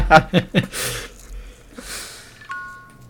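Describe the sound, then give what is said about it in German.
Near the end, an Apple Watch sounds a single clear electronic chime that rings on steadily. Before it come bursts of laughter and soft breathy noises. “Meine Apple Watch hat geklingelt, sorry.”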